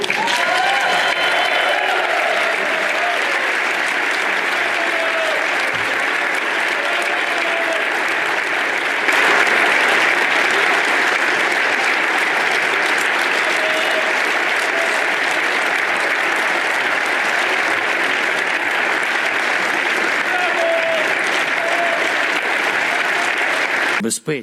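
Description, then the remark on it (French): Sustained, dense applause fills the hemicycle of the European Parliament in Brussels as Volodymyr Zelensky is welcomed, a steady wash of many hands clapping at constant loudness for the whole stretch, with faint murmurs of a crowd underneath. “Volodymyr Zelensky, accueilli donc euh, chaleureusement, mais il n'a pas obtenu les avions de chasse qu'il souhaitait.”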